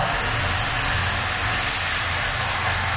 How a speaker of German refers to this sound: Dann wollen wir mal. Auf geht's, auf die Plätze fertig dusch. Wasser ist erstmal ein bisschen kalt